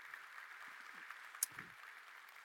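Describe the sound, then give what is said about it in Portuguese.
A church audience applauding the Lord Jesus together on a cold Sunday morning, a dense, steady wash of many hands clapping that stays fairly soft and even for the whole stretch, with a brief sharper click partway through. “Dê um aplauso ao Senhor Jesus nessa manhã.”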